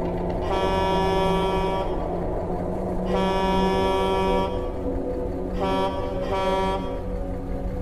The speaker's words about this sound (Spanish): De igual forma, hice sonar el claxon.